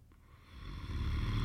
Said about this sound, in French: à peine couché dans son lit, Elbissaron entendit venant du bout du couloir, en direct de la chambre du diable, des ronflements énormes semblables à des tremblements de terre.